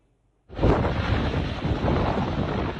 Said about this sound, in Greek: Είναι η στιγμή που το μοιραίο ελικόπτερο απογειώνεται για να συνδράμει στην κατάσβεση τη φωτιά που έχει ξεσπάσει στη Σάμο.